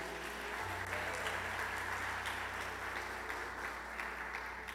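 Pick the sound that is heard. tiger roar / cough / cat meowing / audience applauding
audience applauding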